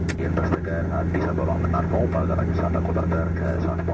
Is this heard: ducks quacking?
no